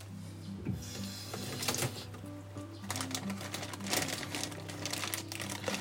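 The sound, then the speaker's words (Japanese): Red shiso leaves are laid over pickled plums to cover them, 400 g of pickled red shiso for 1 kg of plums. Intermittent wet crinkling and rustling bursts grow busier toward the end, over a steady low hum, with no talking. “えー 1kg に対して 400g の赤じそ漬けを漬け込みますもうねあのかぶせるだけっていうか”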